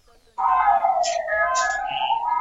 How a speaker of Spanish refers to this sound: Suenan, suenan sirenas por ahí, que nadie se asuste, pero bueno. Sí, no, mías no son, ¿eh?